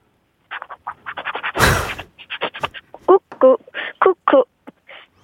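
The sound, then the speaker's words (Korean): A fourth-grade child caller imitates a Cuckoo electric rice cooker over the phone: quick clicky mouth sounds, a loud breathy hiss like escaping steam, then a run of short, pitched, melodic beeps. “쿠쿠 밥솥 소리랑 음.”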